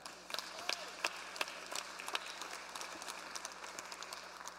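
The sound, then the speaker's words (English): An audience breaks into steady applause, many hands clapping in a dense, crackling wash with a few sharper individual claps standing out, holding at an even level throughout. “You can clap. I know you want to.”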